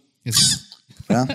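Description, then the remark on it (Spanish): A person imitates a squirrel with two short, squeaky chattering bursts, the first high and hissy, the second more voiced and buzzing, separated by a brief pause, fairly loud. “ese es el sonido de la ardilla.”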